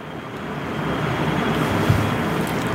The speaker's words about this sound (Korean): 겨울이라서 여기 환풍기에서 바람 소리가 나요. 이걸 완전히 막을 수가 없습니다.